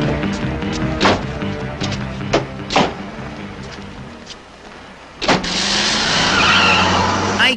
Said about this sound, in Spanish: y todos los carros queman llanta cuando se van, ¿no? Pues van rápido.